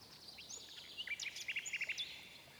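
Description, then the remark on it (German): A wind-up mechanical nightingale, set with diamonds, rubies and sapphires, sings in high, thin chirps and whistles, breaking into a quick run of evenly spaced tweets near the end, fairly faint and alone with no talking. “Sobald man den künstlichen Vogel aufzog, konnte er wirklich singen.”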